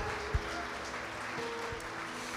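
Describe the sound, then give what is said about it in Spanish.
An audience claps steadily for a couple of seconds as applause to God, a dense, even patter of many hands at moderate loudness, with one low thump near the start and no one speaking. “Le damos un fuerte aplauso a Dios por el corazón de esta familia.”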